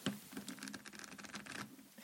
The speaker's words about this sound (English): Shuffle them and um, yeah, fan them out so that the faces are facing your heart.